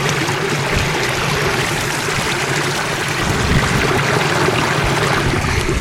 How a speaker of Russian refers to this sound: Если идти вдоль села Цмур, то можно слышать непрекращающийся звук воды.